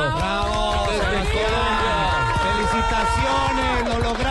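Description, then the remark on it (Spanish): Loud, steady applause from a crowd for Juan Sebastián Toro on completing all three stages, mixed with cheering and overlapping voices, sustained for several seconds without a break. “Para él, Sebas, escucha este fuerte aplauso.”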